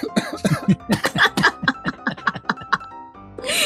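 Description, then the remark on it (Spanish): A person coughs after a mosquito got in while they were talking: a fairly loud fit of quick, uneven bursts with some laugh-like voicing mixed in, then a short pause before one last harsh cough. “Estaba hablando y se me metió un mosquito.”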